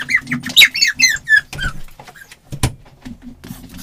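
A dog lets out a quick run of high, excited whines and squeaks, followed by a single sharp door thud and faint rustling, with no one talking.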